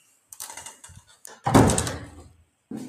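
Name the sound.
knocking on a door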